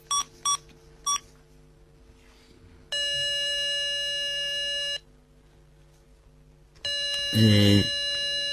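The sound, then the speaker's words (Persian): A few quick dialing beeps, then a telephone rings in two long, steady bursts separated by a pause, with nobody answering, on a call to the Kadbanoo household services agency. A brief muffled sound overlaps the second ring. “چرا گوشی رو بر نمیداری؟”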